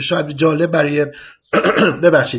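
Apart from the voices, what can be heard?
throat clearing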